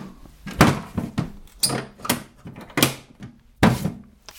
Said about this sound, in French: Voilà. Je referme la boîte magique.